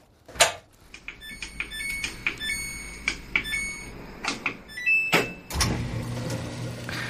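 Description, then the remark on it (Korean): A washing machine being operated at its control panel: button clicks and a string of short electronic beeps, then a latch clunk and a steady rush of water starting to pour in. Fairly clear, no talking. “이게 세탁기 조작하는 겁니다. 그리고 이제 물이 쏟아지기 시작하는 거죠.”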